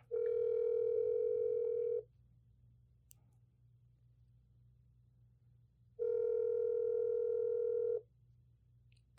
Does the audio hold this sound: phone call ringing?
yes